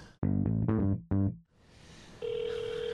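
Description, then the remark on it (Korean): Three short, bright electronic tone bursts like a call being placed to the JTBC broadcaster, then a pause of hiss before a steady, unbroken telephone tone sets in and holds to the end. No one speaks. “네 제가 주저 없이 JTBC에 전화를 걸겠습니다.”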